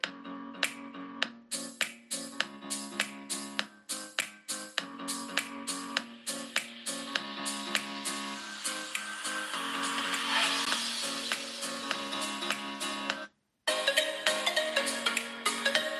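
A Pixel 4 smartphone loudspeaker plays bright, tuneful music at full volume, recorded about 30 cm from the phone without an external microphone, with steady rhythmic notes and a brief silent gap near the end before the music resumes.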